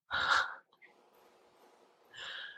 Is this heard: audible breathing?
yes